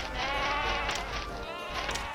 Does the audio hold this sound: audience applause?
no